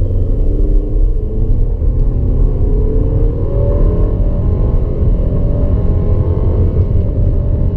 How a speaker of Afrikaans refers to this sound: Kraglewering is billik, hoewel die masjien nogal raserig raak teenoor toere.